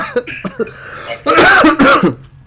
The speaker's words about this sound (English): What I was just coughing on right now. I don't why the fuck I'm talking from my nose like this because I'm still coughing.